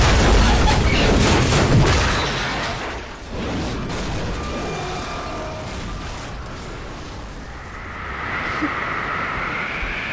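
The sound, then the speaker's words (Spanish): A violent crashing boom from a plane collision bursts out loud, then gives way to a continuous roaring rumble with grinding metallic tones and a rising whine near the end. It is Flight 571 colliding a little over an hour after taking off from Montevideo airport with 45 people on board. “Poco más de una hora después se produce la colisión.”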